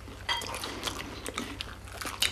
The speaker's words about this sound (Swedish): ska vi ta varsin tugga då? Charmars vegetariantoast. Oj jäklar, vad svårt. Ja. Jag får inte ta en tugga längre in tror jag, för jag fick inte med mig så mycket. mindre bröd. Mm. Gott.